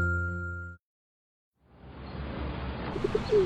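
Pigeons cooing amid a busy, rustling wash of ambient noise, with a brief steady tone at the start, then a pause before the low murmuring coos and a few higher chirps.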